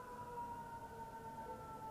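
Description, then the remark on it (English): An emergency vehicle siren sounds faintly outside, its steady wailing tone drifting slightly in pitch and continuing the whole time, with no one speaking. “here comes another freaking, what is it? Ambulance?”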